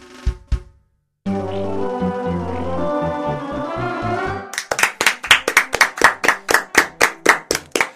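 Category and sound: crowd, applause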